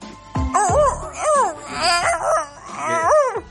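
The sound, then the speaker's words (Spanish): A human voice imitates a sad, whimpering dog with several high, wavering whines and yelps in a row, fairly loud, with no other talk. “Menos mal que tenemos al perro. hola, perro, ¿qué tal? ¿Qué ha pasado? ¿Qué ha pasado, pequeñín?”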